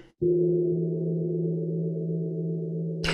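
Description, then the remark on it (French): A single loud gong strike blooms into a deep, steady metallic hum that rings on for about three seconds before cutting off abruptly, with no voices present. “Ou un gong.”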